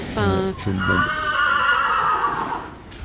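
A horse neighs loudly, a long quavering whinny that rises, trembles, and slowly fades over a few seconds.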